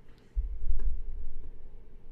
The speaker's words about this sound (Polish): Kurczę, tak słychać komputer?